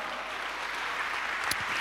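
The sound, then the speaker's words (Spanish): An audience claps together in steady, dense applause for the Lord, a bright crackling wash of many hands that holds level for the whole moment with no voices rising above it. “¿Cuánto le dan un aplauso al Señor, amado hermano?”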